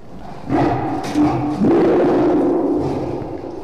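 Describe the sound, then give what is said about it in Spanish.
A deep, menacing growl swells into a loud, rumbling roar from a lion that emerged from bushes in a garden in a residential district of Salisbury, Africa, at midnight, sustained for a few seconds before easing off. “Ya frente al garage de su residencia, el juez comienza a descender de su vehículo cuando escucha un gruñido amenazante.”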